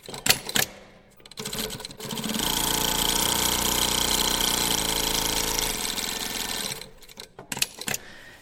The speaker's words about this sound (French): Et après, on a les, machines qui fait des fois, euh, quand on a des grandes quantités à coudre, ça fait du bruit.